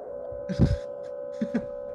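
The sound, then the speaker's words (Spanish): A steady buzzing interference hum drones on a line throughout, moderately loud, with two brief pairs of low thumping bursts cutting in about a second apart. “Tenemos interferencia ahí.”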